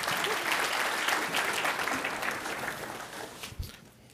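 An audience claps for a quiz winner in a dense, crackling burst of applause that holds level for a few seconds, then thins out and fades away toward the end.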